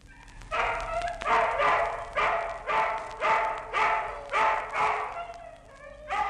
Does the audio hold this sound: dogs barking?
yes